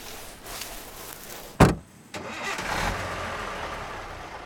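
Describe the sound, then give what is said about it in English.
A bus engine cranks with a sharp clunk, falls briefly quiet, then rumbles into a steady idle. The hum stays fairly loud, with no voices. Band members in uniform have loaded their instruments onto the bus to drive from Hollywood to Pasadena. “We had to wake up at 4 o'clock in the morning to get ready we put on our uniforms, loaded our instruments onto the bus.”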